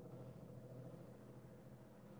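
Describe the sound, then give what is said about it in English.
A steady, low rumble of cars going by outside, muffled, holding an even level throughout with no voices over it. “there are allowed cars going by.”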